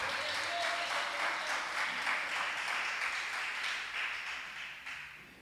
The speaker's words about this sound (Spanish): Dele otro aplauso al Rey de Gloria.